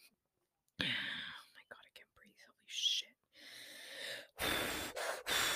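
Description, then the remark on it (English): Heavy, labored breathing through the mouth by a person unable to breathe through the nose: several loud, rasping breaths with short gaps between them, the last ones coming in quick, harsh bursts. “I can't breathe from my nostrils, so it's getting pretty hard.”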